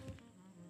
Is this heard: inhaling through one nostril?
no